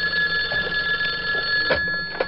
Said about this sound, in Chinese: 电话上没有显示来电的号码，他也以为只是某个打错的电话，也就挂断了。谁知片刻之后，电话又响了。